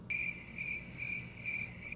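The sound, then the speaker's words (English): Crickets chirp steadily in a shrill, high-pitched trill that pulses in four short bursts, with a faint low background hum underneath and no voices. “oh no, now now it's fucking crickets.”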